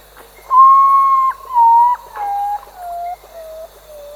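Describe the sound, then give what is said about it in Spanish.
An urutau's mournful call: five drawn-out whistled notes stepping steadily downward in pitch, the first loudest and the rest gradually fading, heard clearly on its own. “su llorar o ella llora y su llorar se asimila al cantar de el ave uratú, que suena más o menos así.”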